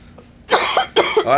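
A person coughs twice in quick succession, two harsh, fairly loud bursts close to the microphone, with no talking around them.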